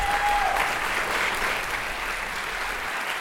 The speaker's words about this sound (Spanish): Denle un fuerte aplauso, por favor.